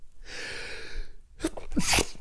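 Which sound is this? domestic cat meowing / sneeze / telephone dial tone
sneeze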